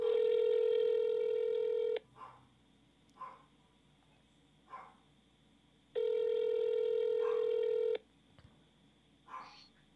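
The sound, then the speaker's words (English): A telephone call to Drew Clay rings out: two long, steady ringback tones about four seconds apart, with a dog barking faintly in the background between them. “Let's call him. Let's do it.”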